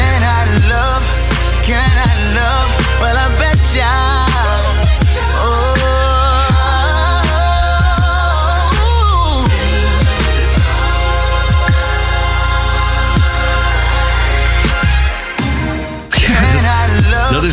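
A loud, full short sample of a new R&B song by an upcoming male R&B singer from America, his sung vocal line over a steady beat and warm bass, playing continuously and briefly dropping out near the end.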